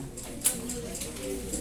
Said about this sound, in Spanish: Ah, ¿sí? ¿Ese es un estornudo? Salud. No sé si han escuchado esos que estornudan así. Siento como que estornudan para adentro.